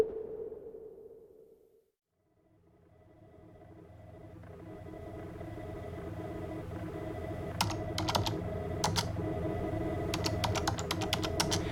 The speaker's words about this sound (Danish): Hos Psykolognævnet i København taster en sagsbehandler et nummer ind på en telefon og ringer op til en kvinde, der har henvendt sig til Psykolognævnet.